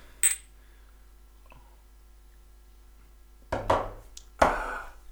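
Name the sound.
glasses clinking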